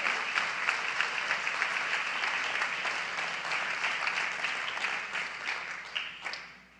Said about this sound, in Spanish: Damos fuerte aplauso al Señor, hermanos.